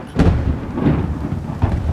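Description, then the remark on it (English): Heavy rain pours down in a dense, steady roar on a cliff edge by a former lighthouse, with deep rumbling bursts like thunder rolling through the storm. No voices, just the full wash of a downpour. “perched on a rain battered cliff edge, is a former lighthouse.”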